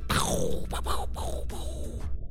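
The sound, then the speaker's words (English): A voice imitates nuclear explosions with loud, breathy rumbling bursts, several blasts in quick succession that swell and fade, no actual words spoken. “Those uh those were the explosions from the nukes I just gave myself.”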